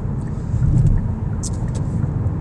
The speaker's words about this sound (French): circulation à l'air fluide à mon entrée sur l'autoroute métropolitaine avec un M majuscule.